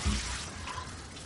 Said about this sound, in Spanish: Tel cierra el grifo.